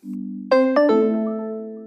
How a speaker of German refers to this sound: Es gibt verschiedene Töne, muss man an der Stelle sagen, nur um es kurz erklärt zu haben. Das hier, das ist der Standardgong.